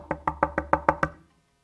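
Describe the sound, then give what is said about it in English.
Seven quick, evenly spaced knocks on a wooden door, fairly loud, each with a hollow resonant thud, followed by silence; the knocking is done so the mic can pick it up. “it's not how I normally knock on doors.”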